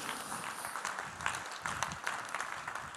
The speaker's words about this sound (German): Kann man auch mal klatschen, ja, auf jeden Fall kann man mal klatschen.